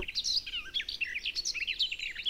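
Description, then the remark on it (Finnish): A garden warbler sings at daybreak on a summer morning from the edge of a yard, a fast, continuous warbling stream of bright, rich notes, clear with no pauses, heard alone without any voices. “Kun päivä valkenee, alkaa aamun upea kesäkonsertti soida myös pihalaidalta lehtokertaa.”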